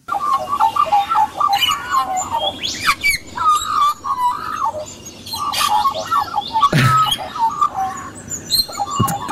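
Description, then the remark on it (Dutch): Australian magpie calls: a loud chorus of fluting, warbling notes and gurgling phrases, several voices overlapping continuously with sharp high squeaks breaking through. “Ja, dat is iets dat eh, officieel de zwartrugfluitvogel heet, maar in de volksmond de Australische ekster.”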